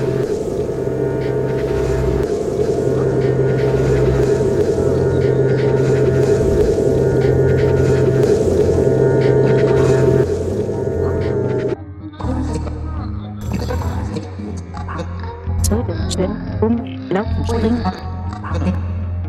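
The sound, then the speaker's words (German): Lake ice groans with a deep, steady rumbling drone, then breaks into irregular cracks, creaks and eerie sweeping pings that echo like sonar across the frozen surface, with no voices. “Ich höre das Eis bersten hinter mir. Es knarzt, es platzt. Es ist ein tiefer, plötzlicher Ton, beständig, aber nicht regelmäßig.”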